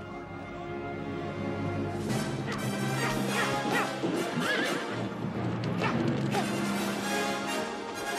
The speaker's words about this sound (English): Oh, look, a horse.